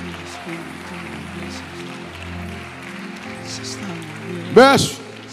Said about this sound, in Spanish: Si hay un aplauso, déselo fuerte. Déselo fuerte. Déselo fuerte a Él.